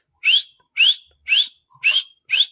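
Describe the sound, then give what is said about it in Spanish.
Five short, sharp rising whistles repeated at a steady pace, each about a quarter second long, loud, with no talking: street vendors' whistled warning signal when the police come, started by the first vendor to see them and taken up by the others. “Pero también, cuando venía la policía, los vendedores ambulantes, que había, no sé, a lo largo de 10 cuadras, como no sé, 20 por cada calle, 20 por cada cuadra, empezaban a chiflar.”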